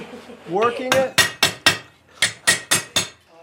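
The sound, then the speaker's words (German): Sharp metallic clangs of a blacksmith's hammer striking an anvil, about seven ringing blows in two quick groups, loud, preceded by a brief scraping, rattling sound; a demonstration for tourists and school classes of how smiths 200 years ago made tools and spare parts for covered wagons with anvil, hammer and tongs. “demonstriert Touristen und Schulklassen, wie Schmiede vor 200 Jahren Werkzeuge und Ersatzteile für Planwagen mit Amboss, Hammer und Zange hergestellt haben.”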